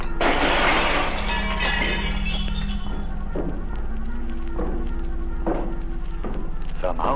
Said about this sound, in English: A stack of dishes was picked up and dropped to the floor, and silverware was being thrown around, all by unseen hands. The large mirror over the sideboard suddenly shattered,